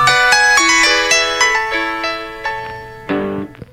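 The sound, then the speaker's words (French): The short electronic startup jingle of an old Nokia mobile phone: a bright melodic sequence of about eight clear synthetic tones, each with a sharp attack and fading tail, ending on a louder final chord. “Bon, mais écoute, euh, c'est c'est Nokia, c'est ça, c'est le démarrage. Nokia, de- ah oui, c'est un vieux Nokia.”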